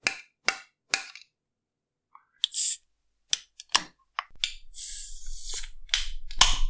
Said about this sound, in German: Profi-Tipp, bei der geschüttelten Dose immer mal so dagegen schlagen, dass sich die Kohlensäure nach oben bewegt. Und ich hoffe mal, es spritzt jetzt nicht. Die John Dorian dreimal Klopftechnik.